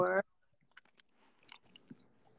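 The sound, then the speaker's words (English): Soft chewing of apricots: quiet, irregular squishy mouth sounds and small clicks following a brief burst of voice at the start. “it just has something about the taste of apricots that reminds me of of that jam that her grandmother used to make so anyway well that sounds good i'm glad you're enjoying sounds delicious”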